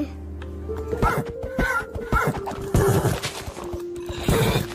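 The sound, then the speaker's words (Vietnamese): A horse whinnies in several short, fairly loud bursts over a few seconds, with scattered clattering knocks and thuds mixed in, clear. “con này con lợn nhá bố này con ngựa nhá”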